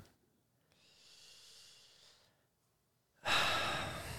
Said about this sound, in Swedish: Oh wow, det, där, det var förakt i den där gäspningen alltså.